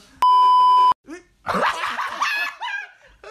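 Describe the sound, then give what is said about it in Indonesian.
A loud, steady censor bleep, a single high-pitched tone held for under a second, cuts off abruptly and is followed by excited voices and laughter. “Weh sensor.”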